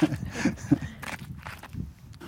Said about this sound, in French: on entend une canette rouler